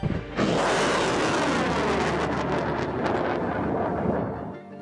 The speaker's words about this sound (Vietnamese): hàng loạt những âm thanh xuất hiện bao gồm âm thanh của sấm sét, sóng biển, âm thanh phóng tên lửa,